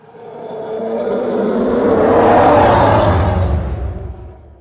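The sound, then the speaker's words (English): A loud TIE fighter engine sound effect, made of two layered elements including elephant growls, swells up and then fades away. A deep rumble sits beneath a bright, whooshing hiss, heard alone without any talking. “So those two elements layered together are what creates the base loop for the TIE fighter.”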